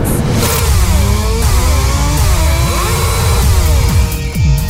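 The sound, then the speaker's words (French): Several motorcycle engines rev loudly and continuously for a motorcycle race, their pitches rising and falling over one another like bikes racing past, with no voices. “dernière, toute dernière course de moto avec la gang du matin aujourd'hui.”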